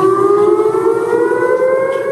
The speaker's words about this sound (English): There was a time when sirens were the go to emergency warning system. Their chilling sound sent people running for cover. Sirens are still used today.